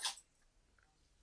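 A dog gives a single short, sharp sneeze, a sudden hissing burst that fades fast, leaving faint quiet afterward.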